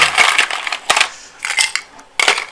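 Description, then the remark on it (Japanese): Ice cubes clatter and crunch as they are dropped into a glass while a drink is made at lunchtime, several loud bursts of bright rattling with short gaps between them, no voices. “ごめんねうるさくて 今氷を氷を入れましたが思いのほかうるさかったですね”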